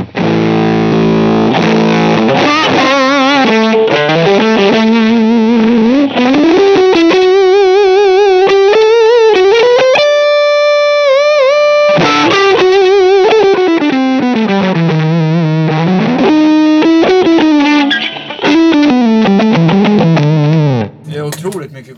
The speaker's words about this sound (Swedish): om någon tycker att det där är svårspelat. Då använder man jävligt mycket dist.